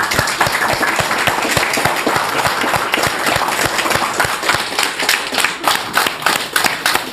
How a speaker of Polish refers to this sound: Od początku brawa.